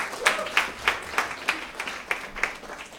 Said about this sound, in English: How about that word? Come on now, give Jesus a hand clap.